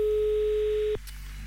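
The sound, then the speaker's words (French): A telephone ringback tone from an outgoing call placed on air by a host of the Swiss radio station Rouge to a listener in Cossonnet for a radio game: one steady, clear beep lasting about a second, then cutting off into quiet line hiss. No one speaks. “et attention, eh ben, c'est parti, ça sonne du côté de Cossonnet aujourd'hui”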